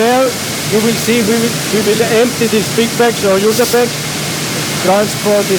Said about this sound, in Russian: we have again a sieve and the dust extraction